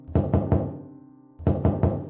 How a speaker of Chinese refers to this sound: 我突然又听到了，好像有人在敲后门的声音。一开始我以为是风，但发现不对，这个敲门的声音是有规律的。